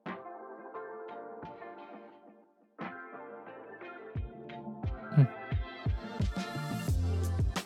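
Instrumental background music plays on its own, starting with sustained melodic tones, a brief dip to near silence, then building with punchy percussive hits and a fuller, louder arrangement.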